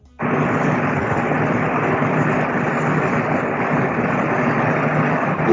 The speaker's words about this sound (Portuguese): É que quando forem colocar para cortar o silêncio do podcast, não vai cortar, porque o som o ventilador tá alto, por favor.